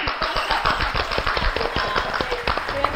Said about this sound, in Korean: 그럼 박수 한번 쳐요.